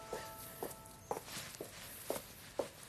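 Sharp high-heeled footsteps click at a steady walking pace, about six crisp taps spaced roughly half a second apart, clear against a quiet background.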